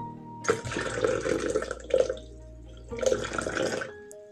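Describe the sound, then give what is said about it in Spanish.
Bursts of splashing, trickling water from a small stream at night come and go in two main stretches, moderately loud, with a brief pause between them and no voices. “Llegó la noche y el niño junto a su caballo llegó a un pequeño riachuelo.”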